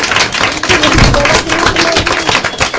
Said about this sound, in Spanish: Oye, un aplauso que la profesora les ha dado una, una larga.